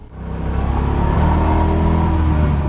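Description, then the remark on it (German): A small Isetta microcar engine revs loud, its buzzing drone swelling within the first second and then holding steady with a rough, throbbing rumble. No voices. “Allein das Motorgeräusch der Isetta ist unverwechselbar.”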